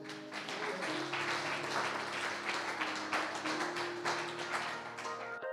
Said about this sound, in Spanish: ¿Pueden darle un aplauso al Señor?